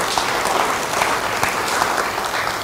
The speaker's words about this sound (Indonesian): Beri tepuk tangan bagi dia.